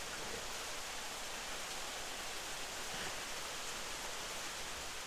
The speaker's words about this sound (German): Ja, das ist, das ist dieser Regen, hm. von dem die Leute sprechen.